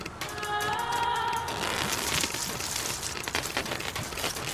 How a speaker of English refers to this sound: Rain outside, but the foliage of the workshop's roof is keeping it out well enough.